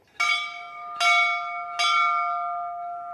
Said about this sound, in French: où les gens rentrent en faisant sonner la cloche.